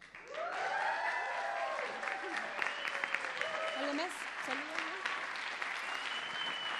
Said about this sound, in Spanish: salimos al aire para todas las ciudades del mundo, así que este aplauso lo escuchan en todas las ondas hertzianas, habidas y por haber.